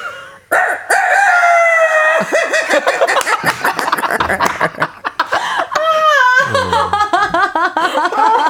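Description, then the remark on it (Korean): A person on a radio show imitates a rooster crowing, copying a video of a rooster with an injured throat that cannot finish its crow: a long, strained high-pitched call that breaks into choppy, faltering bursts, then trails off into loud, rhythmic laugh-like cackles. “아, 아니 이제 닭소리를 저거 몇 번 아니, 냈었는데”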